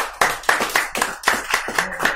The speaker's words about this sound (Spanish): No, pues un, un aplauso al, al profe